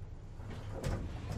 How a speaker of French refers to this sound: L'ascenseur s'arrêta dans un sursaut et les portes s'ouvrirent sur le deuxième étage de la tour.